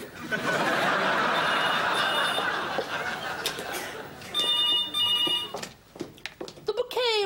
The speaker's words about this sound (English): the landline would be going all the time, wouldn't it? Yes, and it is in this episode. There are many calls on the phone.